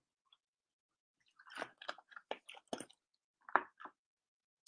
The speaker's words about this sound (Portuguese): Bem, pessoal, o que eu tinha para falar era isso. Beber um gole d'água aqui para.